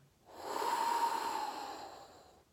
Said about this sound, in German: Das ist die Art von Meditation, von der ich schon öfters gesprochen habe. Nur mal ganz kurz tief einatmen, zum Beispiel so.